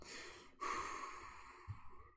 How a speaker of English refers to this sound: Just breathing into my heart space here.